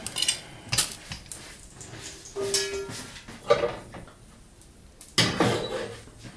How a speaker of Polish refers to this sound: Dobra, pora zdjąć ostatniego naleśnika z pieca.